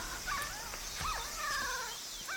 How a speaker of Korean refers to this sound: 박스 안에 몇 마리인지 알아볼 수 없는 강아지들이 꼬물거리며 낑낑 울어대고 있었다. 그 소리는 연약하지만 처절한 고통을 담고 있어 들으면 들을수록 막 태어난 생명체가 아니라 곧 죽어갈 생명체가 내는 소리처럼 들렸다.